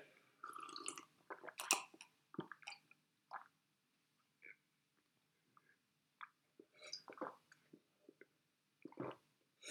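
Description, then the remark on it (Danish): Someone noisily drinks a glass of tap water in Copenhagen, with irregular wet slurps, gulps and squishy mouth sounds separated by brief pauses, and no talking. “Jeg har aldrig set nogen drikke et glas vand så ulækkert.”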